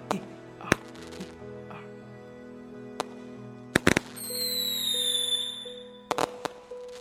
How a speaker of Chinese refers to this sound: 在一片噼噼啪啪的爆竹声中，我领着罗平两个人，迎着寒流，在那条长长的忠孝路上一面跑，我嘴里一面叫着。